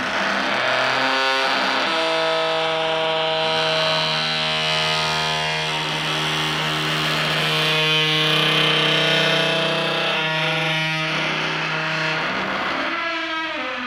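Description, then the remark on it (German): A bathroom door in an apartment in Berlin creaks open in a long, drawn-out squeal, its tone sliding and warbling through several pitches for over ten seconds, loud, with no one speaking. “Ich habe wahrscheinlich die am schönsten quietschende Badezimmertür der Welt.”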